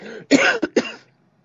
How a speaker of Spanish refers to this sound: pues nada, antes de que te mueras de la tos, vamos a poner la canción.